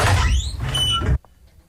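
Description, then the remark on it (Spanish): A door closes as someone leaves, with a loud, squeaky scraping slide lasting about a second, ending in an abrupt shut that leaves near silence. “Hasta luego cerrado la puerta.”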